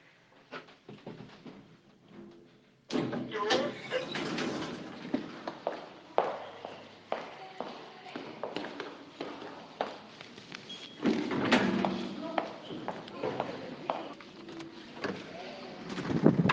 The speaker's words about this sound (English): Going down. I'm just in the lift at work going down across to my sister's, who happens to live right next door, uh, where I'm going to go have lunch.